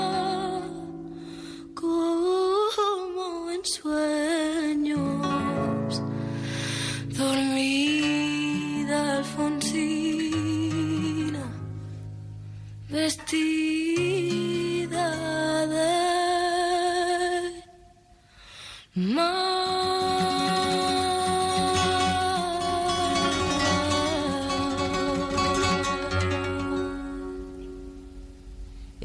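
A solo voice sings the slow, wavering melody of a song over sustained low accompaniment chords, pausing briefly near the end before a long held final passage that gradually fades.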